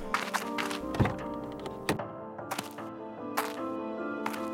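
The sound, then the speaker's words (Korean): A luxury sedan's door is opened by its driver in a police station parking lot: the door opens with a click and shuts with a solid thunk, followed by a few lighter knocks and clicks, all over a steady musical drone. “경찰서 주차장에 고급 승용차가 멈춰선다. 운전기사가 문을 열어준다.”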